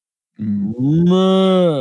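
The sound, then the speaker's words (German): A person's voice imitates a cow into a wheat beer glass with one loud, drawn-out moo, starting low and swelling into a sustained, resonant bellow. “imitiere fünf Tiergeräusche in zehn Sekunden”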